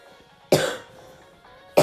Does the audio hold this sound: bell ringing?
no